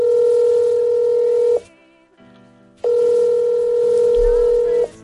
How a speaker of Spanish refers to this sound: Si te toca trabajar en un servicio de urgencias en Nochebuena, sabes que cada vez que suena el teléfono